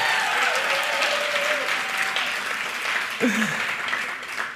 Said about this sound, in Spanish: Les prometí un saludo muy especial, así que por favor un fuerte aplauso a todos ellos.